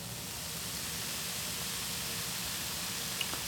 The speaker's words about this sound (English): Listen to that carbonation of fizzy, fizzy love.